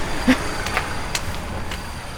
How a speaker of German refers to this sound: Und da kommt gerade ein Auto aus der Straße rausgefahren. Wie praktisch.